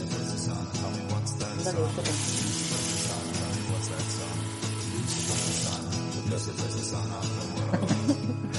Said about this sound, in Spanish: fíjate que cosas que el sonido del agua a lo mejor lo aprovecho para meterlo en el como banda sonora de no sé qué.